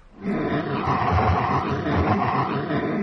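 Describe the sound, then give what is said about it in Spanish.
Low, rumbling growls from thin, hungry wolves advancing under moonlight, loud, sustained for nearly three seconds as overlapping snarls that rise in after a brief quiet start, with no talking. “Gruñendo, los lobos avanzan bajo la luz de la luna frente a ti.”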